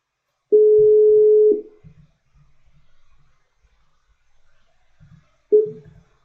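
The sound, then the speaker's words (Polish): A telephone dial tone while a call is placed to a guest of a show: a loud, steady mid-pitched beep lasting about a second, a pause with faint low rumbling, then the tone starts again. “Czyli dzwonimy do”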